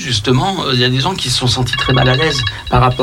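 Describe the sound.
A phone alarm rings with steady, high electronic tones, coming in partway through and continuing under a man's ongoing speech at moderate volume.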